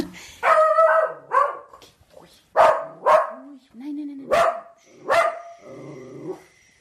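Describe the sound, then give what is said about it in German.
A dog grumbles and barks, a run of loud, short barks broken by low, drawn-out grumbling sounds, all in quick irregular bursts. “Maule Paule.”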